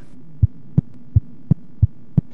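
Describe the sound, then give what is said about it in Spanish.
A steady thumping heartbeat in a Q Radio jingle, seven deep low beats evenly spaced at a brisk pace, heard alone over a faint background hum. “Únete a nuestro latido.”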